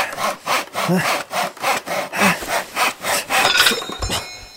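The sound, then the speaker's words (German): A hand saw rasps through the wood of a tree in steady back-and-forth strokes, about a dozen rhythmic pulls and pushes, fairly loud, with no voices over it. “Gib mal die Säge her.”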